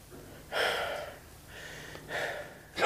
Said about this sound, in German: er atmet schwer.